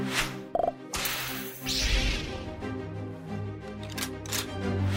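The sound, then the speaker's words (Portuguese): A whip cracks sharply, with a quick swishing lash, over a steady musical backing in a show's opening jingle, an Indiana Jones-style whip. There is no talking. “Que, que foi esse chicote aí?”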